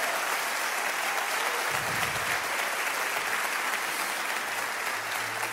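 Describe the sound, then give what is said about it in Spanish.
An audience claps together in a sustained, dense burst of applause for God during a church sermon, steady and loud throughout with no talking over it. “No, si es un aplauso para Él, tiene que ser mejor.”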